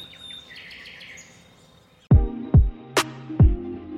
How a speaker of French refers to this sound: Vous entendrez peut-être euh, les oiseaux, ça y est, hein, ça nous donne beaucoup d'espoir en ce moment, qui se sont remis à chanter.